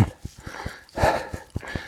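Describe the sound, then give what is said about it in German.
Brisk footsteps on asphalt tap in a steady, quick rhythm as a person walks uphill, pulled along by a dog, mixed with heavy breathing or panting that swells briefly in the middle. “Ich schnaufe, es geht bergauf und ich gehe übrigens.”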